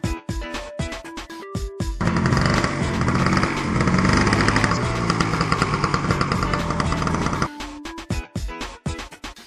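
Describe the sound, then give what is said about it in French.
A small scooter engine buzzes loudly and steadily for about five seconds, framed by short, sharp plucked tones before and after; no one speaks. “Mais c'est mon scooter”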